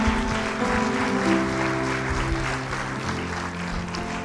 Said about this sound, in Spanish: De una ofrenda de palmas al Señor.